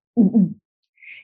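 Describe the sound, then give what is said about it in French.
A voice imitates the small throat noise a safety freediver makes on joining a freediver at 30 metres depth: a low, throaty double hoot, two quick rounded pulses close together, followed after a short pause by a faint, thin higher-pitched whistle-like tone. “Euh, et à 30 mètres, il y a le premier apnéiste de sécurité qui me rejoint euh, et qui me fait un, petit bruit de gorge.”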